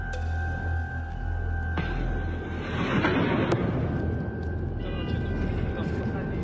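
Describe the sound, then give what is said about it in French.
Explosions from a massive Russian military offensive on Kharkiv rumble in a few heavy bursts, with one sharp crack standing out, over a steady background hum and murky ambient noise. “Kharkiv, deuxième ville du pays, se réveille au son des déflagrations.”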